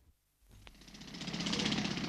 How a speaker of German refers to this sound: Seit etwa 1 Uhr heute Nacht rattern die Pressluftbohrer und bohren einen Graben quer durch die Ebertstraße hier am Brandenburger Tor. Der Graben ist etwa einen halben Meter tief und einen halben Meter breit.